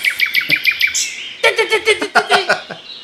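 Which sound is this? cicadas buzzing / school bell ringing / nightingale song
nightingale song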